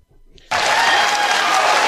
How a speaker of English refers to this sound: Let me follow up they're cheering for you